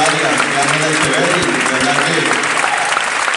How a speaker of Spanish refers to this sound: Porque por ahí dijo nuestro host, un aplauso para nuestro host,